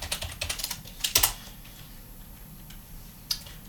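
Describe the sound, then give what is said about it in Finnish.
Quick bursts of typing on a computer keyboard in an office, writing a notice for a bulletin board: a rapid cluster of clicky keystrokes in the first second and a half, then quieter and sparse, with one last sharp tap near the end. No voices. “Kirjoitetaanpa tästä ilmoitustaululle.”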